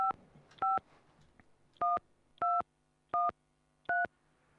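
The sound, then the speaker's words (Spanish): Six crisp telephone keypad tones beeped in an irregular sequence, each a short two-pitch dual tone, clear over a faint background hum with no talking. “si usted saca la tarjeta de cliente frecuente, eh, puede presionar dos.”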